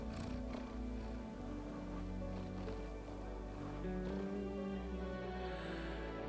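cat purring

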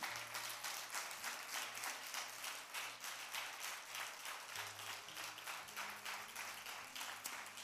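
audience applauding

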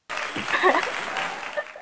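applause sound effect

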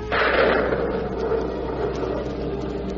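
thunder of a storm

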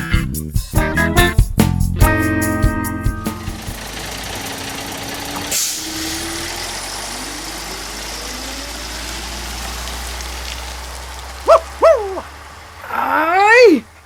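dog barking loudly nearby

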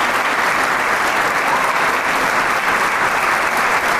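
concert audience applause

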